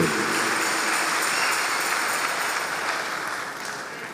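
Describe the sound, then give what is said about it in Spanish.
A crowd claps steadily, a dense, continuous patter of many hands that holds at a strong level before easing off slightly toward the end, with no voices over it. “A ese aplauso métele un poquito.”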